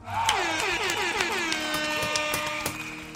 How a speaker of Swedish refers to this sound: En applåd och en tuta på det.